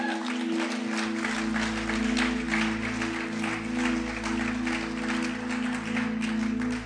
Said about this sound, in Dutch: Kom op, laten we hem daar een, een applaus voor geven.